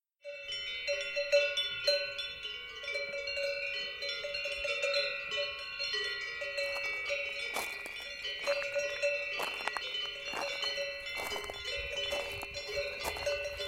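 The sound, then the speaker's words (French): Many cowbells clank and jingle continuously on mountain alpine pastures along a stony trail, overlapping irregularly at varying distances, with no voices. “Alors que le son des cloches nous accueille, nous cheminons sur cette piste caillouteuse et au sortir du bois de la forêt qui recouvre les flancs de la montagne s'ouvrent à nous maintenant quelques alpages à travers lesquels serpentent des ruisseaux.”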